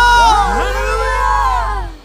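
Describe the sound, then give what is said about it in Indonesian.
An audience cheers loudly for God, many voices whooping and shouting at once in rising and falling tones, sustained for about two seconds before tapering off at the end. “Sekali lagi kita berikan tepuk tangan sorak-sorai bagi Allah.”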